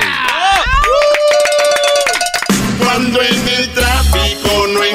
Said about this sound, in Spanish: Wow, Venga el aplauso, bro.